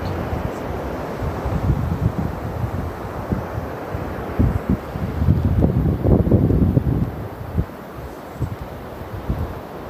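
Steady, rumbling ocean surf rolls in with no voices, swelling into a louder wave surge midway before easing back into a continuous wash, with a windy, blustery edge.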